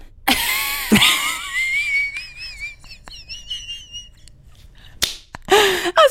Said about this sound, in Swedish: du visslar i dina lungor när du skrattar.